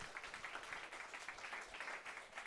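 An audience applauds steadily after a lecture, a dense wash of many hands clapping at an even level throughout, with no voices standing out.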